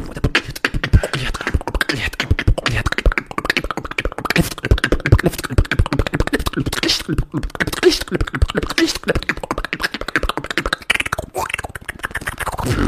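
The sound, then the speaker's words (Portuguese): A long, continuous beatboxing run with rapid, tightly packed clicks, snaps and thumping bass hits in a driving rhythm, performed loud with no pauses for speech. “tem um limite pra você fazer o beatbox?”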